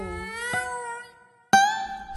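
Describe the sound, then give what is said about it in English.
Two drawn-out, wailing cat howls from the roof of a house, loud, the second rising sharply after a brief pause, with no talking. “Stop that awful noise, you stupid cats, he ordered. You'll wake the neighbours. That made us howl even more.”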